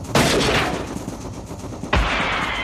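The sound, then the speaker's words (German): Two sharp, loud western-style gunshots used as a sound effect introducing Colt Express, a 2015 game about a train and cowboys, one at the start and another about two seconds later, each with a broad crack and a long reverberating tail. “Es geht, wie man hört, in dem Spiel um einen Zug und um Cowboys.”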